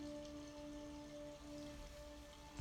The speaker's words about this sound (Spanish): cierras tus ojos para simplemente escuchar el agua del río y de la cascada.